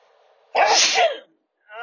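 A single loud sneeze bursts out sharply and fades quickly, followed by a brief moment of silence before a voice begins again.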